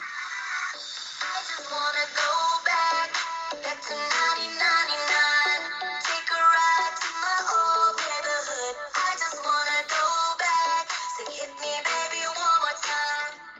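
An upbeat pop dance track plays continuously with a steady pulsing beat and bright melodic synths, sounding thin and tinny as if played through a small speaker, with no one talking over it.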